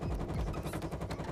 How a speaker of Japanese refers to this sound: 実家で長年使っている洗濯機が頑張ってくれてる音です